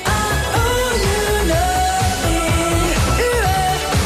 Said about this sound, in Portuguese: Outra inovação de … foi a maneira como ele introduziu o grito Uá! na música popular